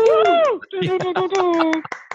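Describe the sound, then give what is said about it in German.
A single person claps for himself to celebrate a 100th edition, a quick, steady run of about ten claps, accompanied by a voice that glides down and then holds a long sung note underneath the applause. “Ich muss mal selber mal für mich selber mal klatschen.”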